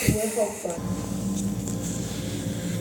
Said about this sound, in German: So, jetzt kann es natürlich sein, dass ihr hier so ein Rauschen im Hintergrund hört. Das ist die Klimaanlage. Ich könnte die natürlich auch ausschalten, aber ähm, ich drücke ungern auf Knöpfen rum, selbst wenn es nur die Klimaanlage ist